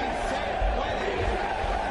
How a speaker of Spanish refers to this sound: Sí se puede son los jugadores del, del Málaga con la afición atrás, gritando sí se puede.